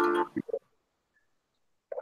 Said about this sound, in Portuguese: Não gente, eu esqueci de desligar o meu, o meu é, o relógio, o despertador, desculpa.